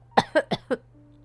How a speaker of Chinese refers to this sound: 富兰克林裹着大大的围巾，一边咳嗽一边委屈地说：“ 我生病了，嗓子好疼啊！”